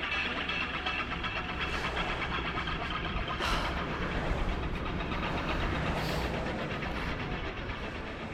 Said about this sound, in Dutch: lopen midden in de woestijn op één snelweg. het is levensgevaarlijk hier. Vrachtwagens denderen hier met 120 kilo voorbij. Allemaal zand in mijn smoel.